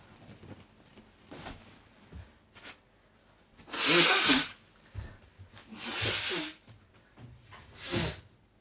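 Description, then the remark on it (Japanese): Three loud nose blows into a tissue by a person whose nose has suddenly become blocked, each a harsh breathy burst of about a second, separated by short pauses, with faint rustling and small sniffs before them. “ちょっとまあ鼻かんでいいごめんね。”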